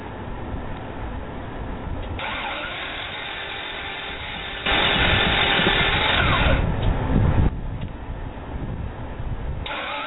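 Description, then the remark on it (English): A struggling car engine cranks and sputters while trying to start, its rough mechanical noise rising to a louder, harsher stretch midway before dropping back, with no voices. “this the way your vehicle sound, you might want to stop in.”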